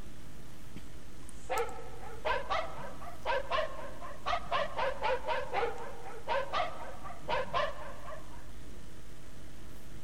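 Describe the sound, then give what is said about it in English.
A puppy barks in quick bursts, roughly a dozen short, high, yappy barks grouped in clusters, clear with no talking. Some barks have a whiny, whimpering edge. “He'd make a great guard dog if you could tame him.”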